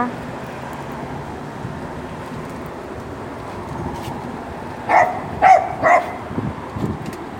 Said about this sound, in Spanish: perrito.